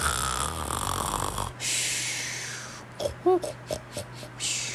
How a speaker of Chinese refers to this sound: 半夜三更啊，一弯明月高挂天空，南洋的动物传来此起彼落的打鼾声。